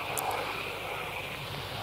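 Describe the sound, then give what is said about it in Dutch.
A steady, broad roar of low-flying fighter jets skimming over a hijacked train, large flames trailing behind the jets, the engine noise filling the whole short stretch with a constant rushing rumble and no talking. “Het is een eh, angstaanjagend gezicht hoe de straaljagers over de trein heen scheren.”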